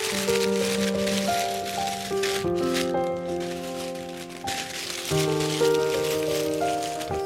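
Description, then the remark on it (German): Steady papery rustling of question cards being shuffled and three drawn, running under a soft melodic tune of held, stepping notes, with no voices. “Raschelt verheißungsvoll. Sie ziehen einfach drei.”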